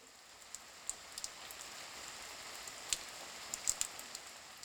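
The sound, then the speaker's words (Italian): Steady rain falls in a soft, continuous hiss, with occasional sharper drops ticking on a surface. No voices, just the even wash of rainfall. “La pioggia continua a cadere su tutto il giallo dei campi, continua a cadere azzurra e viola ritornando verso il cielo.”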